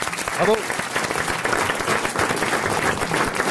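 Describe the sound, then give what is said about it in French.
A studio audience breaks into steady applause for Marc-Antoine Lebray, dense clapping filling the whole moment, with a brief voice cutting through near the start. “On peut applaudir Marc-Antoine Lebray.”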